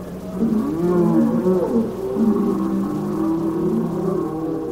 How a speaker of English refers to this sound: The bulls along the boundary line bellow loud and long and deep, Greek chorus in this vital play.